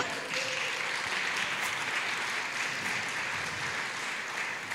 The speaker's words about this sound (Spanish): ¿Por qué les damos otro aplauso?